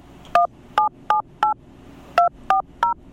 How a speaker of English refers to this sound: Well, we've got a telephone. Let me see, uh, push the buttons here. I do that. and let's find out.